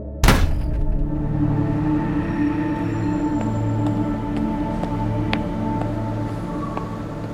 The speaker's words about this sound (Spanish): se incorpora de la silla sin mediar palabra, se da media vuelta y se marcha de las dependencias policiales dejando tras de sí los efluvios de su ira, así como una extraña reverberación producida por el tremendo portazo que ha dado al salir.